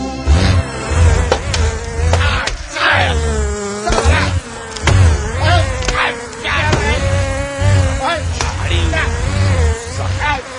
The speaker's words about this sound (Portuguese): Calma, amigo, estamos sendo invadidos por abelhas.